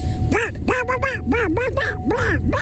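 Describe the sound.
A voice imitates the cartoon duck Daffy Duck or Donald Duck, producing a run of about six raspy, nasal quacking bursts with wavering pitch, fairly loud and delivered in quick, uneven succession.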